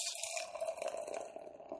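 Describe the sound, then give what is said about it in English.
A 7.6% saison beer, Gnome for the Holidays, pours steadily from a can into a glass, a continuous liquid splash with a fizzy, bubbly hiss that carries on throughout; nobody speaks. “All right, so pour you first.”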